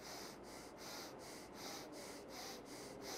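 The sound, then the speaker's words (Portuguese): Quick, shallow breaths drawn in and out through the nose in a steady, rapid rhythm as a breathing exercise, soft with no talking. “nessa respiração superficial pelo nariz”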